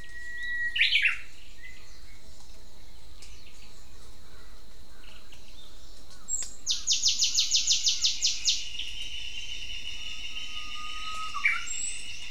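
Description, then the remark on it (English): Calls of the Okinawan rail (Yanbaru kuina), a rare flightless bird endemic to the island, ring out over a steady hiss of insects: a short burst near the start, then a fast series of harsh repeated notes, with a faint call near the end. No talking. “This is the Okinawan rail, and it is one of the most rare species on the island.”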